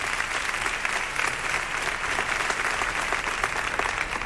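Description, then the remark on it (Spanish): Sustained applause from a large theatre audience for a band after it played a march, a dense, steady wash of clapping that holds at an even loudness for several seconds with no voices standing out. “que está ahí con nosotros también y al que saludamos y que salen estos momentos, también para recibir el aplauso”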